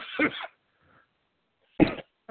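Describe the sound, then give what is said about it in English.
A person with spring allergies in Wisconsin coughs in short, harsh bursts: one cough, a pause of over a second, then another, with a third starting at the end. Fairly loud, with no talking. “I'm sorry, I've got I've got uh, it's spring here in Wisconsin, and uh, I've got some allergies going on, and this cough is just per, just persistent with me.”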